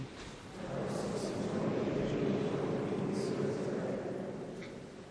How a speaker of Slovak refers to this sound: Búrlivé more.